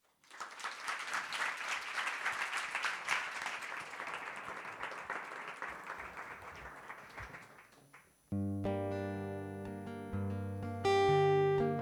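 A crowd applauds steadily for about eight seconds, a dense wash of clapping, before it gives way to the next song, sustained music with held tonal chords.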